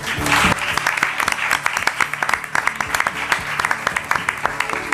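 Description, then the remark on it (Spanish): Dense, sustained applause from a large audience in the Salón de Actos of Onda Cero Radio, a steady wash of many hands clapping at once with sharp individual claps standing out, loud throughout. “Así que también un aplauso muy fuerte para él.”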